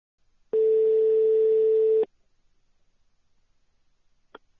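One long, steady ringback tone on an outgoing phone call to a horticulturist in Dordogne lasts about a second and a half, then silence follows, broken only by a faint click near the end.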